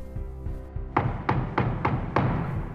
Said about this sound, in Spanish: La puerta se sacudió